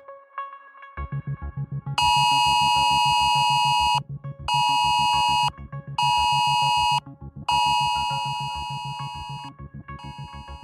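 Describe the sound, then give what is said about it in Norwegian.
A loud, piercing mobile phone emergency alert tone sounds in long repeated bursts separated by brief gaps, layered over a rapid pulsing buzz, with no one speaking, as thousands of phones across Norway sound at noon on a Wednesday in a test alert, here in Oslo. “For klokken tolv i dag peip tusenvis av telefoner rundt omkring i hele Norges land, og sånn her gikk det for seg i Oslo.”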